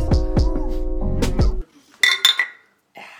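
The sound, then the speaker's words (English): Drinks of tea and lukewarm beer clink together in a toast: a few quick, bright taps of glass, following a stretch of low, resonant tones. “like we should cheers. We seem to start it. We should cheers.”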